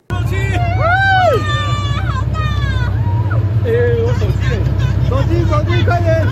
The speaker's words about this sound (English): Oohs and ahs break out from the boat's passengers, who captured the sight on their phones. We saw the whale near Wanlitong. People were very excited. For many, it was the first time seeing a whale.